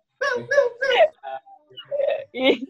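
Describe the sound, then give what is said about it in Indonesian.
A clear voice of a cat owner imitates a cat's meow, giving a quick string of about six or seven short, high-pitched mewing calls with brief pauses between them. “aku punya kucing jadi aku meong ya”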